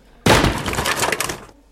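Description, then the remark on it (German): A sudden loud crash as a broom rack is kicked hard, followed by about a second of rattling, clattering debris that stops abruptly. Forceful, with no voices. “Ich trete Vollgas gegen diese äh, Besenkonstruktion, hinter der er liegt, sodass es richtig scheppert.”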